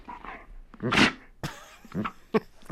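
A dog whimpers and whines in short, uneven bursts, with one louder, higher yelp near the start and softer plaintive whines following.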